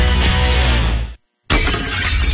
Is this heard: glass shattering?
yes